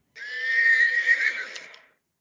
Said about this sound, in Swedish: Riddarens stora grå häst lyfter på huvudet och gnäggar.